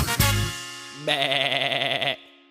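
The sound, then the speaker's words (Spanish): A sheep lets out one loud bleat lasting about a second, its voice quavering rapidly, with a brief rough burst of noise just before it and no talking. “Esa es la oveja, la conozco bien.”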